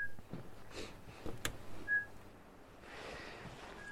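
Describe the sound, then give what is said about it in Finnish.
A person whistles a few short, clear single notes spaced about two seconds apart, imitating a pygmy owl's call to try to get the owl to respond, over a quiet, faintly rustling outdoor background. “viheltelee varpuspöllölle ja yrittää saada sitä viestimään meidän kanssa.”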